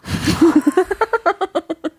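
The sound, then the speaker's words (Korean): A voice imitates a rich household's doorbell chime: after a short breathy burst, about a dozen quick, evenly spaced sung notes climb upward in pitch, fairly loud. “이게 부잣집 초인종 아, 소리.”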